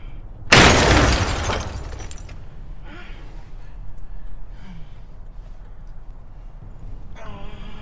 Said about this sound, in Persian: جای گلوله رو روی شیشه علامت میزنه به پنجره شلیک میکنه